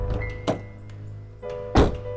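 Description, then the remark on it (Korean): While a car drives down a mountain, a loud, heavy thud of something striking the car, preceded by a softer knock, is heard over a steady low rumble like a running engine inside the vehicle. “돌아가던 길 차를 타고 하산하는데 쾅 하고 뭔가 부딪히는 소리가 났어.”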